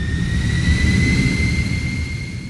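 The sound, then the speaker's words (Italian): A jet airplane on a flight to San Juan, Puerto Rico roars steadily, a dense low rumble topped by two thin, high turbine whines that hold constant throughout, fairly loud with no voices. “E quindi andai in un'agenzia viaggi, eh, proprio come si fa nei film, così all'ultimo secondo, e presi un biglietto aereo e volai a San Juan de Porto Rico.”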